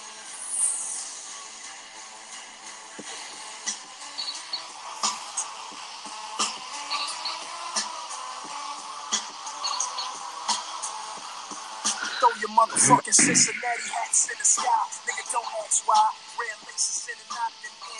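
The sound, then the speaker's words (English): A recorded song plays steadily for the whole stretch, with a dense, sustained mix, regular percussive hits, and vocal-like parts. It grows a bit louder and busier toward the end. “this is the this is the song that leads is, is, like leading them into war and you should recognize this song at some point oh,”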